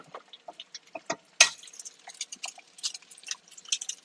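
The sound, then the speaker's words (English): A sharp crack and splat partway through as an egg is broken at the handle side and dropped into a hot 12-inch skillet greased with bacon fat over medium-low heat, surrounded by scattered crackling and popping from the pan before and after. “and I broke one at, at the handle, which I call the six o'clock position and dropped it in.”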